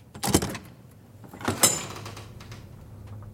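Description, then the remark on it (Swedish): A dormitory door opens with a soft click followed by a brief creaking, sliding scrape, then a fainter second rustle; moderately quiet, with no one speaking. “Anastasia inser direkt att något är fel när dörren till sovsalen öppnas.”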